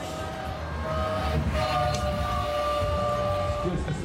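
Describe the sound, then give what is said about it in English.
A train float in the Tour de France caravan rolls past, its steady rumble carrying sustained horn-like tones that hold for a few seconds, loud amid outdoor crowd noise. “Uh, a, a, train float just went past.”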